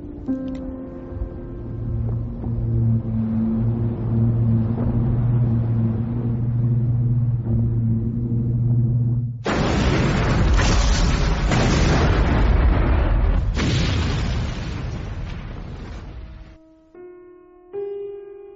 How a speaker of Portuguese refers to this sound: No meio dos ecos da explosão, 1900 mergulhou no mar, na companhia do seu único lar, o Cruz Virginia.